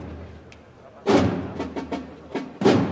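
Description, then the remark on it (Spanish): A procession drum beats out a drum roll between marches, a series of loud, booming strikes in an uneven rhythm, starting after a brief quiet moment, with a low background murmur throughout. “Golpean el tambor, redoble tambor.”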